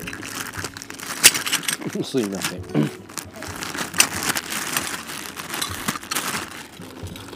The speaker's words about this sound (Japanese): ちょっと咀嚼音とかねうっとうしいと思うんですけ